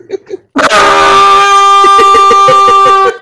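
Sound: horn blast sound effect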